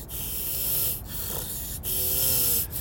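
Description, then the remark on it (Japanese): A voice imitates very rough nasal breathing heard right beside the ear, likened to someone wearing a CPAP: three long, loud, hissy breaths in steady succession, each with a coarse snorting texture and a faint whistling edge, with no talking. “あれ誰か CPAP つけてる なおすごい粗めの鼻息が聞こえたんや”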